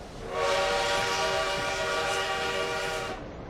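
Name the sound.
train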